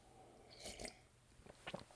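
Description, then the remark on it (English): A quiet sip of coffee: a couple of soft slurping mouth noises followed by a brief swallow and small clicks, with no one talking. “Let me pause for a sip of coffee here.”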